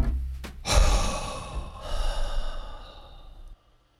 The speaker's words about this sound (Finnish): Kyllä, hengitysharjoituksia. Pitkien syvien hengitysten kautta. Joo, hengitysharjoituksia on hyvä tehdä. Tee vaikka saman tien pari. Okei, eli otetaan neljä sisään, lasketaan mielessä siis neljään,